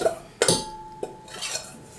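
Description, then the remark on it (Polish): Several clinks and scrapes of a spoon against a metal pot, with a soft wet slide as mushrooms and onion are tipped into a shared pot; moderately loud, no talking. “przełożę sobie już, że tak powiem, do wspólnego gara grzybki, cebulę na te grzybki i cebulę wybieram sobie mniejszy garnek, później jest łatwiej mi e, do większego przysypywać.”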